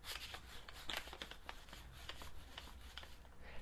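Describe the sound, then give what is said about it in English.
A paper dollar bill, held at arm's length, is rubbed and crumpled in front of a worn Giant Squid Audio Labs lavalier microphone: a steady crinkly rustle with sharp little crackles throughout, clear, with no voices. “hold the dollar bill at arm's length from myself and rub it around”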